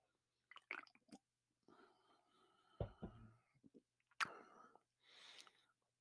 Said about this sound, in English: It doesn't taste cloyingly sweet. It doesn't taste sugary. In fact, it doesn't really taste like anything. It's lightly carbonated, lightly flavored. Uh, for six percent, take another sip.